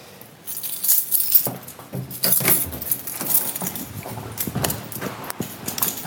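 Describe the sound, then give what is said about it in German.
A bunch of keys jangles as someone leaves their apartment, a continuous bright metallic rattle with repeated small clinks and jingles over several seconds. “Hört man auch schon die Schlüssel rascheln.”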